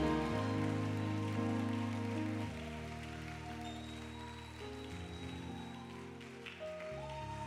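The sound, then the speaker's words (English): A church audience applauds to congratulate a newly engaged couple, a dense, steady wash of clapping that holds for several seconds over sustained organ-like chords, with no one speaking. “Would you help me give a resounding applause and congratulate?”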